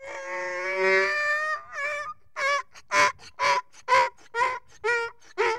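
donkey braying

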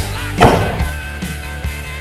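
door slamming shut

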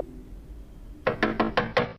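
knocking on a door

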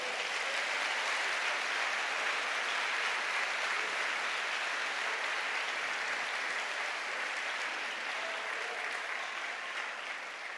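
applause

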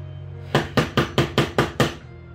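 knocking on a door

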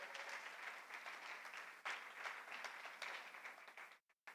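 audience clapping

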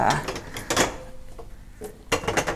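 drawer opening

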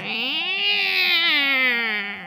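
cat meowing

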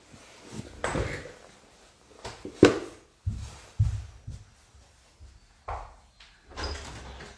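door being opened

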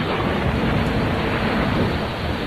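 thunderstorm

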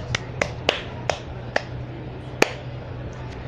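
hand clapping

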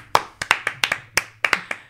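hands clapping

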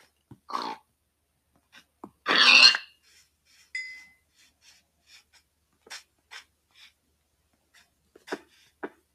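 pig grunting

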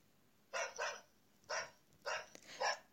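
neighbors' dog barking

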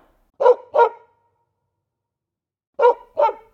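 dog barking

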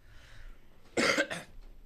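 cough

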